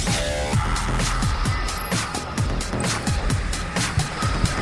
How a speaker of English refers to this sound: Six, five, four, three, two, one, zero. All engines running. Commit. Liftoff.